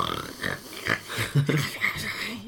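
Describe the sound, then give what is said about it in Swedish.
Someone mimics congested snoring with a string of rough, nasal snorts and grunts in uneven bursts, loud and rattly, with no actual words spoken. “Alltså jag har typ spelat in hela natten när jag snarkar.”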